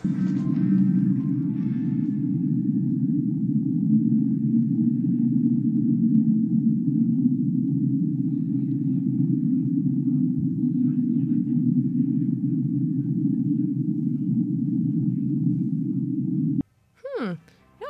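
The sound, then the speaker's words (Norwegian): An unexplained underwater hydrophone recording: a steady, low drone rumbles unchanged for about sixteen seconds, then cuts off abruptly, followed by a few brief sweeping, whistle-like tones at the very end. “Vi får gå videre og høre på ja. neste lyd. Denne heter Whistle.”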